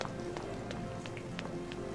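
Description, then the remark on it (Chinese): Quick running footsteps, about six thudding steps in a steady, hurried rhythm over a low continuous background hum. “他受惊一样的退后了两步，摇摇头跑开了。”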